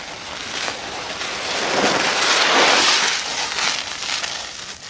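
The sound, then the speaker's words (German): A foley imitation of a car coming from a distance and speeding past, made by swishing a glove: a steady, airy whoosh that swells to a loud peak midway, then gradually fades, with no voices. “Also das Auto, was schnell vorbeikommt, äh, mache ich mit dem Handschuh hier.”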